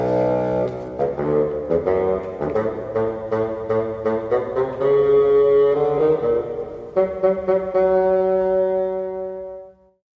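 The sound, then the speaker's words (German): A bassoon plays a low, reedy melody representing the grandfather in an orchestral fairy tale, a steady sequence of distinct notes, fairly loud, with soft accompaniment beneath, before the final note fades out. “ein ganz charakteristischer Klang, dieses äh, Fagott.”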